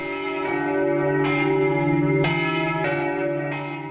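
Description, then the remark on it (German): The church bells of St Mark's in Venice ring out in overlapping peals, fresh strikes landing every second or so over a sustained, resonant hum, heard from outside with no voices. “Der Markusdom in Venedig. Über Jahrhunderte hörte er sich so an, von außen.”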